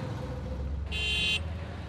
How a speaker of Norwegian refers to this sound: We're in an auto rickshaw right in New Delhi, India, measuring air pollution exposure levels in traffic.